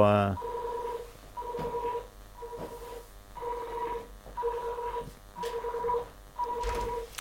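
An alarm at a fire station sounds in a steady series of about seven loud, two-toned electronic beeps, each lasting roughly half a second, repeating at an even pace.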